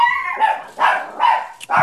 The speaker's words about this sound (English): Whoa, the dogs didn't like that oh. comment. Ah, the Christmassy sounds of dogs in the background. it's very nice.